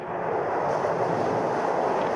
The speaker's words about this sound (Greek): Ο νέο ρωσικό υπερηχητικό πύραυλο Ζυρκών εκτοξεύεται από τη θάλασσα του Μπάρεντ και διανύει μια απόσταση χιλίων χιλιόμετρων.